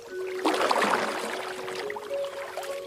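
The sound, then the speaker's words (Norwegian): Paddles dip and pull through water in a steady kayak stroke as two kayaks set out southward, splashing and swishing, with a faint steady hum underneath and no voices. “De setter kajakkene på vannet og kursen sørover.”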